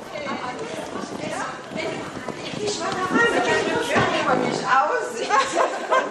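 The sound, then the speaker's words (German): Adults in a psychomotor training course romp noisily indoors: overlapping shouts, laughter and excited voices mix with thumping footsteps and bumps, a busy commotion that keeps up steadily throughout. “Zumindest am Geräuschpegel ist kaum zu unterscheiden, ob hier Kinder oder Erwachsene herumtoben.”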